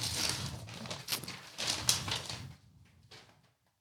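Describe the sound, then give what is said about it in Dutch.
Floral gift-wrapping paper crinkles and rips as a heavy present is opened, a busy stretch of crackling and tearing that trails off into a few faint rustles before going quiet. No one speaks. “Ik zal hem ietsje sneller openmaken, anders dan ja, zit de, luisteraar luisteraars heel, lang, eh, heel lang te luisteren naar eh, knisperend papier.”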